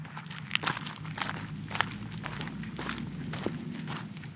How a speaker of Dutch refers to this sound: De weg naar de Hyperloop Buis gaat over een aantal hobbels. We lopen over een eh, soort zandweg.